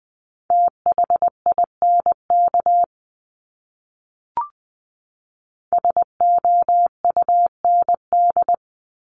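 A steady, high-pitched Morse code tone keys out quick dots and dashes at 20 words per minute in two bursts, separated by a pause with a brief click. The tone is clean, with no voices.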